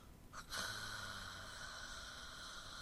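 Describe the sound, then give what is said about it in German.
A man snores: one sharp, snorting inhale that rolls into a long, steady, breathy rasp. It's fairly quiet, with no talking. “Der schnarcht das sofort weiter.”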